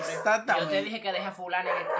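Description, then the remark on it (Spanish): Dogs bark a few times outside a studio, partly buried under people talking over them. “¿Quién está los malditos perros para el estudio?”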